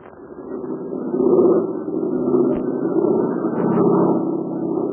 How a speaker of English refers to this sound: You hear that? That's Dude Hennick's American Made Plane and flying over the invaders' lines and trying to dodge a barrage of anti-aircraft fire. And our friends are in it.